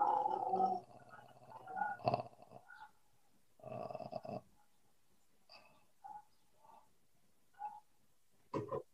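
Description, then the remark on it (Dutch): A human voice makes low, rattling croaks in vocal fry, imitating a frog as a vocal warm-up to make the vocal cords vibrate: several uneven bursts, some longer and gravelly, others short grunts, fairly loud with pauses between. “Mocht je er niet bij hebben, dan kan je eigenlijk een beetje, eh, eh, een beetje als een kikker. Ja. Dan laat je ook die stembanden weer trillen.”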